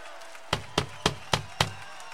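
Applause of five sharp, evenly spaced claps, about a quarter second apart, over a faint steady tonal hum, with no voices.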